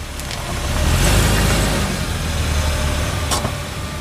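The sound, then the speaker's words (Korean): A car drives slowly into an empty parking lot at a rest area lit by a few streetlights, its engine a steady low rumble, with a few brief crunching or hissing bursts over the drone and no voices. “차를 몰아 텅 빈 주차장 안으로 들어갔다.”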